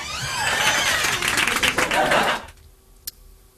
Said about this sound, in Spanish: Es el encargado de mantenimiento que se ríe muy alto y tiene, y, tiene muchas manos. Es como Shiva, aplaude muchísimo, como si fuera un público.